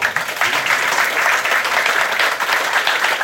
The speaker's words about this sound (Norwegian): Velkommen skal dere være. Det er lov å klappe litt, altså.